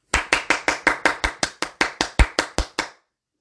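crowd, round of applause

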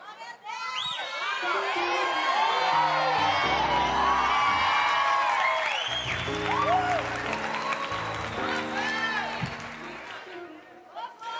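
crowd, audience applause and cheering

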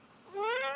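animal, cat meowing

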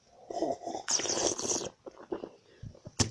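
food or drink, slurping

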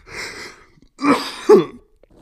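human body sound, coughing and throat clearing

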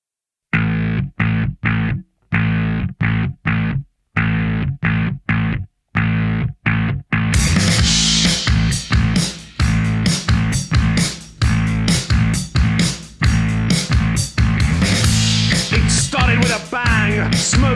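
song played

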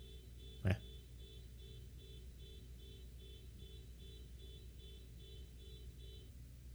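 vehicle, car alarm going off

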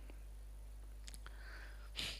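human body sound, sneeze

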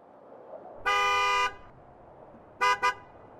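vehicle, delivery truck pulling up

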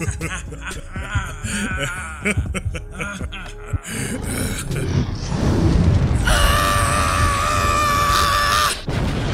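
human body sound, loud human scream

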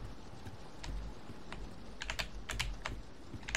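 household object, loud computer keyboard clicking

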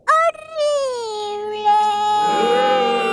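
human body sound, small child crying

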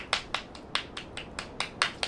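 crowd, crowd applause

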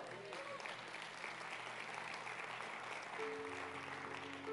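crowd, audience applauding

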